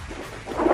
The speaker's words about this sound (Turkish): şu anda yayında alkışlarla.